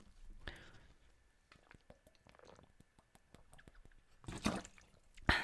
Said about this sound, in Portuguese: Até vou beber água. Esperem aí.